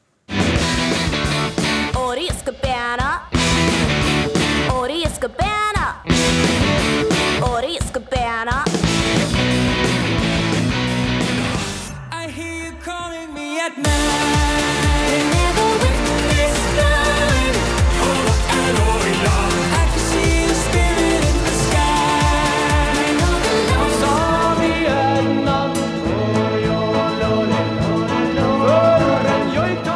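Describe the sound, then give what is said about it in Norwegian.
Sami joik singing, in the style of Norway's MGP song contest, rides over a driving pop song, the wavering, sliding vocal line prominent early on, then a brief dip before the full, loud arrangement surges back in. “Og, ja, nå har altså eh, joik en, eh, ja, en lang tradisjon for å gjøre det godt i både MGP og MGP junior. Bare hør her.”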